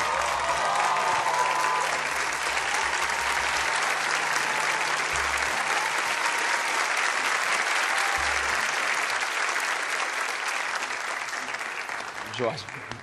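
A crowd claps steadily for about thirteen seconds, a dense, sustained wash of hand claps at an even loudness, with a few low thumps underneath before it fades at the end.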